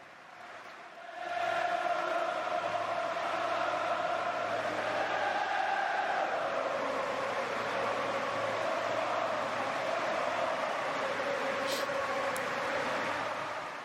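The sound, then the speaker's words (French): A big crowd at Liverpool's stadium stands and applauds in the seventh minute of a match, in support of Ronaldo after the loss of one of his twins: a dense, steady roar of clapping with a sustained chorus of voices running through it. It swells in after a second of quiet and stays loud to the end. “à la septième minute de jeu, comme le numéro de maillot de Ronaldo, le stade de Liverpool s'est levé et a applaudi.”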